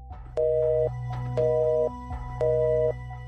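A telephone line tone pulses three times as someone tries to call the police, each steady half-second beep separated by short gaps in an even rhythm, clear over a low background hum, with no voices.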